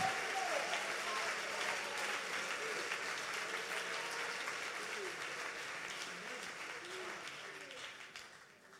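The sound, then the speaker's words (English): An audience claps their hands together in praise of God, a dense, steady wash of applause, with scattered voices murmuring underneath, gradually thinning toward the end. “Oh, let's clap our hands and praise Him together.”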